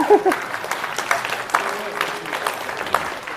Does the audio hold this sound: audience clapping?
yes